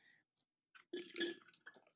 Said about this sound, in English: sorry slurp slurp